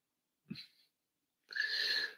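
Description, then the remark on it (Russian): A single loud sneeze: a brief sharp intake at first, then after a short pause a forceful, hissing burst lasting under a second. No talking alongside it. “Будьте здоровы, пишет Иван Колос.”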